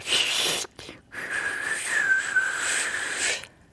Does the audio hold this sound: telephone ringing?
no